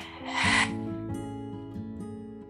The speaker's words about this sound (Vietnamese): rồi hít vào thật sâu đưa khí vào khoang bụng thở ra